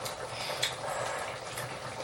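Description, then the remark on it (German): A steady bubbling and hissing of pasta water at a rolling boil in a pot, continuous throughout with a slight rise and fall, and no voices. “Ja klar, kommt ja aus kochendem Wasser.”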